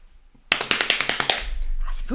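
A hand taps out a quick rhythm on a thigh through very thin trousers: about eight or nine sharp, slapping hits in under a second, fairly even and loud, then trailing off into soft background noise.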